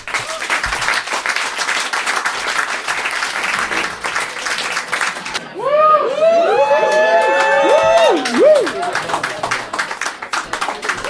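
A crowd claps loudly and steadily throughout, with a burst of whooping, rising and falling cheers and shouts riding over the applause in the middle before the clapping carries on.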